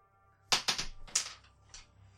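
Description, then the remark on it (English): New dice clatter across a hard table in a quick burst of sharp clicks and clacks, settling with one last small tap on a roll of two, with no talking. “I've got new dice now. I still rolled a two.”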